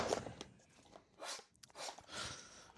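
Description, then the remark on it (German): Wet slurping as a spilled Kingston Negroni cocktail is sucked up off a table, in three or four hissy drawn-in bursts with short pauses between, no voices. “Boah, ist jetzt mal gerade vom Tisch geschlürft.”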